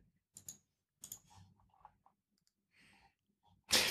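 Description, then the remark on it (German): A handful of sharp, quiet computer mouse clicks at irregular intervals as someone clicks through images, with soft rustling handling noise between them and a louder, fuller click-burst at the very end. “Ich klicke dir einfach mit die ganzen Bilder durch, das ist großartig.”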